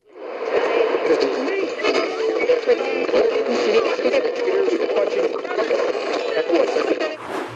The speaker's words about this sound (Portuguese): Será, será, será alguém a travar um carro de uma forma muito brusca? Será um comboio a passar? Ou alguém a sintonizar uma rádio? Esta era fácil. É alguém a sintonizar uma rádio.